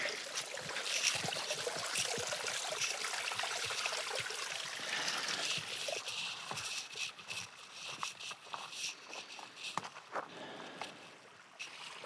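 Water sounds as a bandana is dipped in water and lifted: steady sloshing and trickling with small splashes and drips throughout, no voices.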